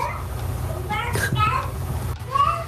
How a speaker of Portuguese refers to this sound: Vocês estão ouvindo aí meu filho. Né? Tá sem. tá gritando Vascão, né?